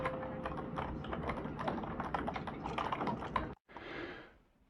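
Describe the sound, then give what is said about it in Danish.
Rapid, steady clatter of fingers typing on a computer keyboard inside a train, fairly loud over a busy background hum, stopping abruptly before a brief whooshing rumble that fades out. “Der er nogen, der skriver på øh, computer.”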